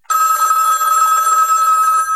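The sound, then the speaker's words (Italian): A telephone bell rings in a laboratory at the foot of Mount Fuji, Japan, with a bright, metallic jangle, loud, sustained for about two seconds with no voices. “Abbiamo pensato che ti sentissi solo in quel laboratorio tra i monti e così ti abbiamo telefonato.”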